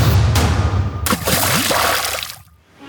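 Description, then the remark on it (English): A steady stream of water trickles and splashes for a couple of seconds, fairly loud, an imitation of the statue of the little boy peeing, then fades quickly away, with no voices. “And you'll never forget the imitation of the statue of the little boy peeing.”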